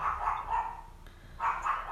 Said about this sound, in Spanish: De hecho, ahorita se está escuchando un puto pug, güey, que no se calle el hocico nunca.